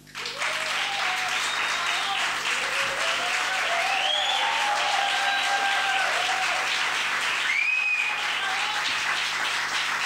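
Sustained audience applause, a dense steady wash of many hands clapping at even loudness for about ten seconds, with faint whistles and cheers rising over it.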